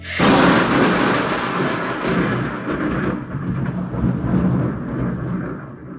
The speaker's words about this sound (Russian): Сейчас просто, что у меня такая молния бахнула, что я боюсь ее слышно будет.